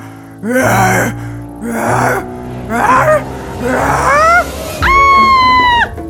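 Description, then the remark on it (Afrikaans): A voice imitates the eerie howl of a big black wolf in five drawn-out, wavering cries, each rising and falling in pitch, loud, ending on a long sustained howl. “skielik hoor hulle 'n aaklige klank. Dis Dolf die wolf wat die geluide maak.”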